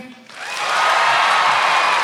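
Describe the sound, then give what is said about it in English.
An audience breaks into applause after a brief quiet moment, quickly swelling into a dense, steady wash of clapping that holds at full strength, with a few faint cheers mixed in. “Can I get a quick round of applause if you have no fucking idea?”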